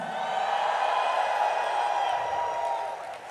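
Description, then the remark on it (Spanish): An audience erupts in sustained shouts and cheers of praise to God, a dense wash of many voices holding loud and steady for a few seconds before easing slightly at the end. “Give God a loud Dale shout of praise. a Dios un grito de alabanza.”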